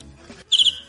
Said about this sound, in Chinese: 这是鸟 好，听 这是个巧儿，好像 好清脆啊！ 这个好听。